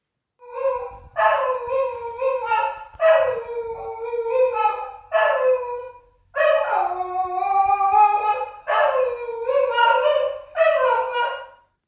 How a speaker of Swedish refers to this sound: Ja, kan det vara en sjungande hund? Ja, det är det. Och det är, det är ju riktigt synd om den här stackars hunden. Den är ju jättefin.